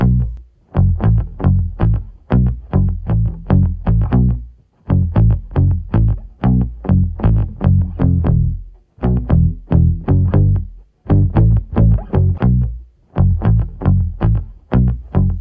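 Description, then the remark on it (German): A rebuilt pop bass line plays alone, a melodic riff of punchy, distorted plucked notes in steady rhythmic phrases that repeat with short pauses between them, loud throughout. “Grundbaustein des Songs ist der Basslauf, der uns durch das ganze Lied führt. Dieser klingt in etwa so.”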